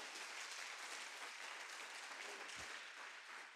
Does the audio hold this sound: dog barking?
no